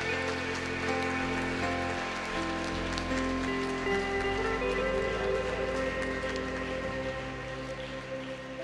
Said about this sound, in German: Wollen wir den ganzen mal einen mächtigen Applaus geben? Vielen, vielen, vielen, vielen Dank.